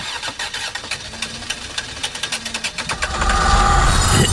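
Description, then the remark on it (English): A time machine is warmed up, sounding like an engine that cranks over with a rapid, rhythmic sputter for about three seconds, then catches and settles into a loud, steady rumbling roar. No one speaks. “Time to warm up the under the influence time machine”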